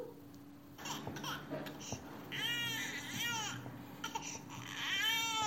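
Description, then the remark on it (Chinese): A newborn baby, being carried in by its parents, cries in repeated wavering wails, high-pitched and fairly loud, mixed with softer babbling sounds between the cries. “It's mommy and daddy, and they're carrying Lulu's noisy new baby。”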